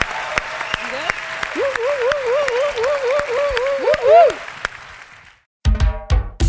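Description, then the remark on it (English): Steady clapping from an audience for about five seconds, applauding Mayor Breed for joining, with a voice whooping in repeated rising-and-falling cries over it, then a short silence before someone starts talking. “Give a round of applause to Mayor Breed for joining us today for the news.”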